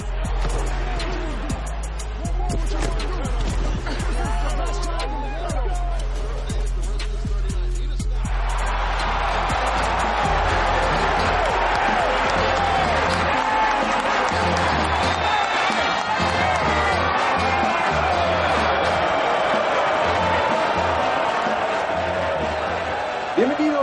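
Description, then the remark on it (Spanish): A loud crowd at an NFL football stadium in Seattle, Washington, roars and cheers continuously on a cold night of 8 degrees Celsius. The din swells after a few seconds, with booming low sounds underneath early on and indistinct voices mixed into the noise. “El día de hoy, como pueden escuchar desde este ruidoso estadio en Seattle, Washington, el Central Link Field, aquí en Seattle, en una noche fría, 8 grados centígrados”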